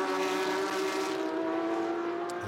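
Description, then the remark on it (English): A Porsche race car engine roars loudly and steadily, its pitch dipping slightly as it passes, with no voices over it. It is the bright yellow MDK Motorsport car driven by Jason Hart. “Here comes Jason Hart in the bright yellow MDK Motorsport car.”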